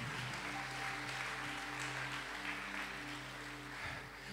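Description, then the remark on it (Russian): A large audience applauds steadily, a dense, continuous wash of clapping lasting the whole stretch, with a sustained low hum or held tone underneath and no talking. “Дай огромные, огромные, огромные, огромные, огромные аплодисменты.”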